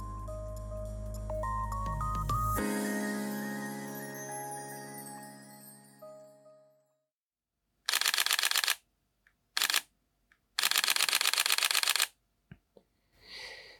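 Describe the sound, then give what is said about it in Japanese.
A musical jingle rings out and fades, then a camera shutter fires in rapid bursts of clicks, several quick volleys of varying length, crisp with short pauses between. “いつもより多めにシャッターを切っております。”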